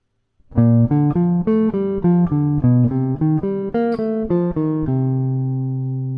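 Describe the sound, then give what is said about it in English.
A chord progression, B flat major 7, G7, C minor 7, F7, played an octave lower in a low register: about a dozen short, evenly paced chords with a bright, buzzy tone, ending on one long sustained chord that slowly fades. No one talks. “Okay, uh, let me try it an octave lower.”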